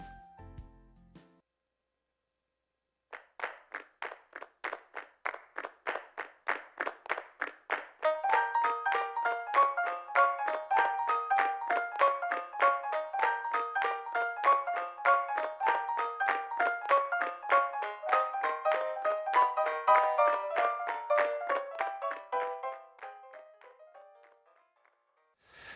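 Two listener-requested pop songs play on a radio programme: a short stretch of music on its own, with steady rhythmic plucked notes that build into a fuller, layered melody before fading out near the end.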